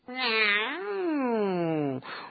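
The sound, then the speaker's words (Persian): A single long, drawn-out meow, loud, rising slightly then sliding down in pitch over about two seconds, sounding like a person's voice imitating a cat. “گربه گفت”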